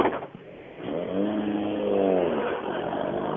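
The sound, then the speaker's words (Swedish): A rally car, start number 20, revs its engine up and down with rising and falling harmonic whine, steady in loudness, with no voices over it. “Start nummer 20 där alltså”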